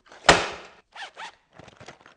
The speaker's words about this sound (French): Prenez vos trousses et sortez votre matériel. Bruit de la trousse qui atterrit sur le bureau.